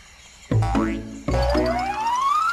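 Two springy cartoon boings, each a sharp bouncy twang with a rising, wobbling pitch, the second stretching out into a long upward glide, as Boots jumps high to reach a key. No voices.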